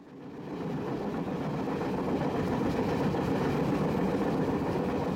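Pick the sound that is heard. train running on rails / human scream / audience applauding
train running on rails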